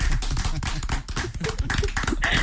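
A burst of applause from a small group in a studio, dense irregular claps filling the whole moment at a steady, fairly loud level with no voices over it.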